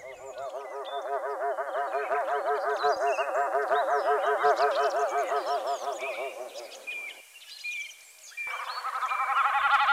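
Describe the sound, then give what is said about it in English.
Snipe drumming, made by the bird's two loose outer tail feathers vibrating as it dives from high in the air toward the ground at great speed: a loud hollow bleating tone that throbs in rapid pulses for several seconds, breaks off briefly, then starts again, with small birds twittering in the background. “These two feathers are loose, and when the bird goes high into the air and then dives down towards the, the ground at great speed, the two outer feathers vibrate to make the drumming sound that you're about to hear.”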